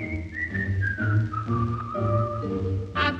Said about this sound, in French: Le pêcheur au bord de l'eau, abrité sous son chapeau, est heureux et trouve la vie belle. Tandis que flotte son bouchon, il sifflote une chanson.